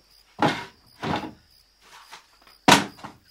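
A drawer is pulled open to get a spare brown hairbrush, with a series of short wooden sliding and rattling bursts, ending in a sharper, louder knock, with quiet pauses between and no talking.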